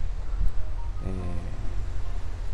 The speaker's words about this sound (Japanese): あとは私がいつもえこうやって波音をバックにお届けしてるんですが